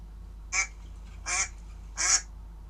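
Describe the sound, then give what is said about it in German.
A duck quacks three times at an even pace, each call short, nasal and moderately loud against a quiet low hum, with no voices present. “Das ist die Ente.”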